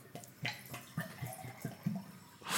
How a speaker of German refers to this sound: Ein Fisch, der Wasser hat und der gluckert jetzt.